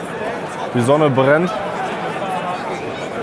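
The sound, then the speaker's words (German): A steady murmur of many voices fills the background of a huge, busy square crowded with a mixed crowd, many in red and some in white, while one person speaks briefly and clearly over it. “Man hört es vielleicht ein bisschen im Hintergrund.”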